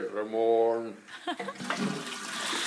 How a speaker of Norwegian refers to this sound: Se, er det noe mer her nå? Det er bare tannpuss og doskylling.